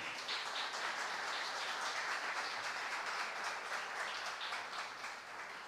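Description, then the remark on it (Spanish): A church audience applauds together as an offering of applause to the King (God), a sustained wash of clapping, steady and fairly loud throughout, with no speech over it and a slight fade near the end. “Denle una ofrenda de palmas al Rey.”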